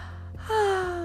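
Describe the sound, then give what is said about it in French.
A single performed yawn: a quick breathy intake followed by a drawn-out, gently falling voiced tone, moderately loud, with no talking around it. “Oui, Mais quand, elle, quand le soleil se lève, la fleur aussi se réveille et elle dit en bâillant”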